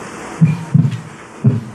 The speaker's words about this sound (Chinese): 可以听一下正常的心跳听起来是什么样子